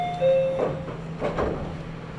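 A short electronic chime rings out at a commuter train platform, followed by pneumatic hisses and rumbling as the train's sliding doors close, all over a steady low background hum.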